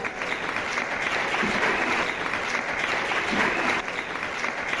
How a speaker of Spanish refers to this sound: Sí, sí, aplaudimos, aplaudimos.